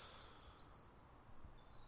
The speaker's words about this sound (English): There's the birds.